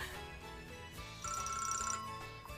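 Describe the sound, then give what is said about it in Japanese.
A telephone rings in a short, rapid trilling burst lasting under a second, clear, over a steady bed of background noise. “では電話の受話器を置きます かけ続けてくれたんだ”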